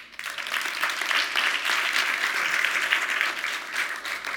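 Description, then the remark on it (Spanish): An audience applauds steadily, a dense patter of many hands clapping at an even, fairly loud level from start to finish with no voices on top. “Un aplauso a ellos.”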